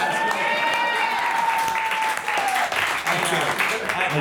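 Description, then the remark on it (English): An audience applauds itself steadily throughout, dense overlapping clapping holding at a loud, even level, with a thin high whistle gliding through the first half. “I think the audience has stopped liking this clapping bit for a while, and so give it up for yourselves.”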